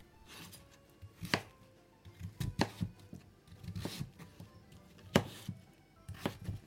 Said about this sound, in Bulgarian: Това е един чудесен и полезен есенен плод, който нарязвам първо на шайби. обелвам. И отново нарязвам, но на по-малки купчета.